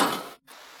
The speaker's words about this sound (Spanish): es un cajón lleno de cosas que se tira, ¿no? Se, deja caer. Entonces, bueno, pues una vez suena así, otra vez suena así, otra vez suena así.